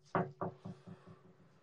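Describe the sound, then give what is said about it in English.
Several quick knocks on a wooden surface, the first two sharp and loud, then a string of softer, evenly spaced raps fading away with no voices. “Let's say knock on wood.”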